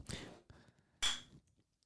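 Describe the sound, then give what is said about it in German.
Beer bottles clink together in a toast: a couple of sharp knocks, then a louder clink with a brief bright ring that fades quickly, with no talking. “22.04 Uhr, na dann lass doch einfach mal hier anstoßen, oder?”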